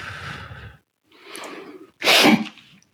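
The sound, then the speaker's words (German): Three breathy bursts of coughing and sniffing up the nose, separated by short pauses; the last burst is the loudest and harshest. No talking. “Erstmal Husten und Nase hochziehen.”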